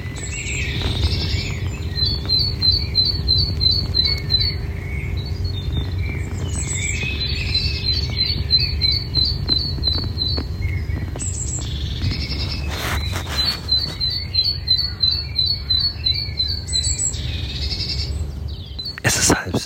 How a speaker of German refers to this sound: Die Vögel melden sich jetzt so langsam. Es wird schon ein bisschen heller, als es in der Nacht war.